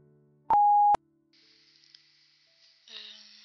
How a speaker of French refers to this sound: Merci de laisser un message après le bip sonore.